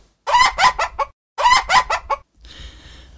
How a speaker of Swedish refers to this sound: Vi har ju Jussi, våran, ja. våran sultantupp. Ja. Som, du vet ju han brukar låta, han skrattgaler.